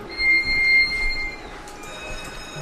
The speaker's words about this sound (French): sonnerie, là, c'est la fermeture des portes. Euh, parce que dans le port de Saint-Va, on garde un niveau d'eau d'à peu près 2,30 m. Donc il y a des portes qui viennent fermer l'entrée